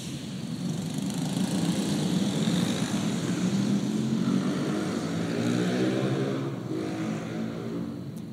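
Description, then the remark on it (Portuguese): A loud engine roars steadily throughout, its throaty exhaust rumble rising and shifting in pitch as the vehicle passes, with no one speaking. “os engenheiros, eles se dedicam tanto para fazer um escapamento silencioso, né? Esse mundo está perdido.”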